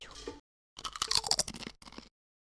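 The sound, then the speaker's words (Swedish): Crisp crunching of potato chips being chewed, with several sharp, brittle bites in quick bursts separated by brief pauses. “I'm hungry. Ja, chips. Kanske inte när vi spelar in dem, men...”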